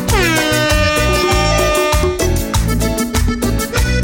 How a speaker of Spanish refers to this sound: DJ. Ráfaga. Dame sirena.